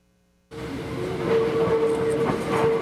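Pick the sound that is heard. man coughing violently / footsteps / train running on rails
train running on rails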